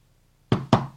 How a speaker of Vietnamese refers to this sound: Gõ cửa, cốc cốc.